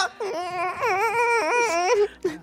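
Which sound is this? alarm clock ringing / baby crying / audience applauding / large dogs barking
baby crying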